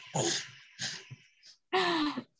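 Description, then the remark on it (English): A big, drawn-out yawn: a couple of breathy intakes followed by a long, loud, voiced exhale that slides downward in pitch before stopping. “oh big yawn”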